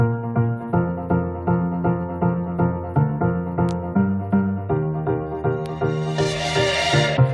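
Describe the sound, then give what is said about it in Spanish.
An upbeat pop track plays on the radio with a steady pulsing beat and bright layered synth chords, loud, with a swelling wash of sound near the end and no voices. “Vaya discazo que suena así de bien aquí en Más Tarde.”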